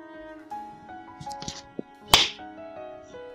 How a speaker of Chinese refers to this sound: 刚刚的巴掌声在两人心中响彻云霄。